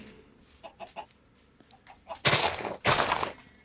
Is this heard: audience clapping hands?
no